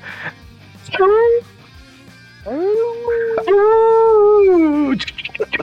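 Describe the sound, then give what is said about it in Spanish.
A man's voice imitates a wolf howl: a short rising cry, then a long sustained howl that bends upward and falls away, loud and drawn out. “Así es, el hombre del guantelete blanco, el hombre que te puede aullar en el oído y sin dejarte sordo,”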